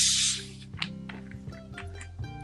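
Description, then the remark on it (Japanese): A bottle of carbonated water is cracked open with a short, loud burst of fizzy hiss at the start, then the sound fades into quieter background tones and small clicks. “今、今ハイ炭ボール今炭酸水開けたでしょ。”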